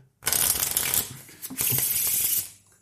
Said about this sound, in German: dann mischt das ist kein Desinteresse des äh, Zauberers, das ist eher Fingerfertigkeit-Übung. Übung, ganz genau. Man übt den ganzen Tag.